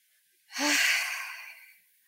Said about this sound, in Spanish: Vamos a tomar una respiración profunda.